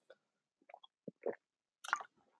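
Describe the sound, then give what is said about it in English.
Someone drinks water: a few brief wet sips and swallowing gulps in an uneven rhythm, soft mouth noises between them, with no talking. “And I need water.”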